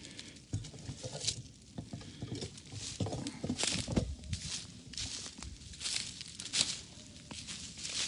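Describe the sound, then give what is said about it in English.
A campfire crackles steadily, with dense irregular pops and snaps over a soft hissing rustle, a few sharper cracks standing out, and no voices. “See how that fire's going, doing.”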